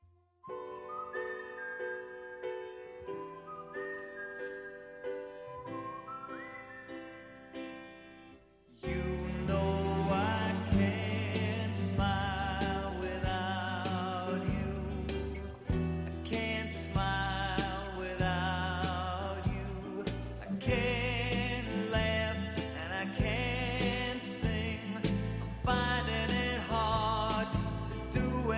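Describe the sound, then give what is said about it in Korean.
A pop song plays as the recommended song of the day on the show Wondabang, with no talking over it: a soft, tuneful intro of sustained melody notes, then at about nine seconds a full band with steady drums and bass kicks in, loud and upbeat. “자, 오늘의 원다방 추천곡 나가는 동안 정답을 보내주시면 됩니다.”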